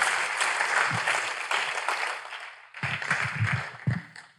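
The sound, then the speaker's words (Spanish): An audience applauds the Lord during a Christian sermon, steadily for several seconds, a dense wash of clapping that briefly dips and then swells again, with a few voices calling out underneath. “Démosle un aplauso al Señor por eso.”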